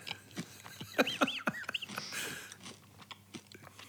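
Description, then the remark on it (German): Crunching as a crisp snack is bitten and chewed, a quick run of sharp, brittle cracks followed by softer, irregular chewing noises, with no one talking. “Probier mal einen Haps hier. Schmatz mal rein da.”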